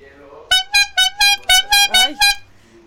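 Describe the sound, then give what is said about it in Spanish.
A handheld horn honks eight times in a quick, steady rhythm, loud, each blast a bright buzzy tone with a slight wobble near the end. “Una corneta, una corneta eso.”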